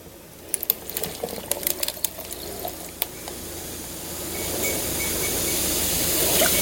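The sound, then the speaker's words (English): A few light clicks and ticks, then a fizzy drink is poured into a glass, its bubbling hiss swelling steadily louder, with no voices. “Yeah, good fizz.”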